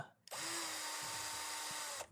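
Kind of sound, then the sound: tool, power drill whirring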